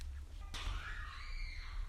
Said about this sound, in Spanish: Dios mío, Dios mío, los gritos.